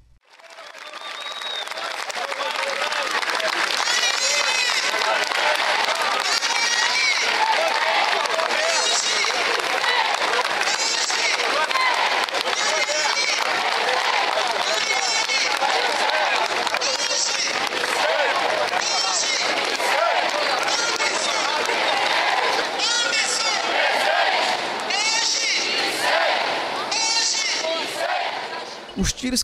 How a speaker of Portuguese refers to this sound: Do lado de fora do prédio, milhares de pessoas se aglutinavam, olhares tristes, faixas e bandeiras com pedidos de justiça se misturavam à comoção do velório de Marielle e Anderson.